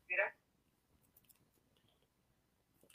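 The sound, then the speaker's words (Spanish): A single crisp snip of scissors cutting the tip off a condom right at the start, fairly loud, followed by faint handling rustles and a short soft click near the end. “pero bueno, básicamente eh, cualquier eh, condón vamos a cortar la punta del condón de esta manera.”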